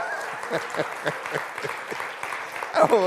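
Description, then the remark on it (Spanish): A church audience applauds to God, a dense, steady wash of many hands clapping that holds at a moderate level throughout, with voices calling out over it and a louder swell near the end. “Los contentos, denle un aplauso a”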